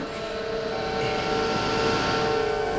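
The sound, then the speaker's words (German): A submarine's motor is started and drones steadily, a dense mechanical rumble layered with a sustained whining hum, holding an even loudness throughout with no voices. “Ich starte den Motor.”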